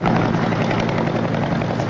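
helicopter flying

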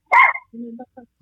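dog barking

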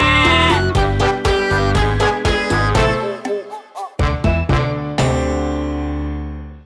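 goats bleating

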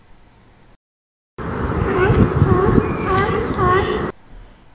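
seagulls squabbling

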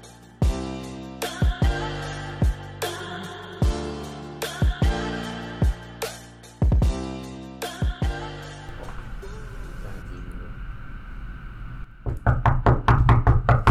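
knocking on a door

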